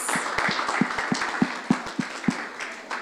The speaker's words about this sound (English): Thanks, team. Praise God. Let's just give the team a clap, guys.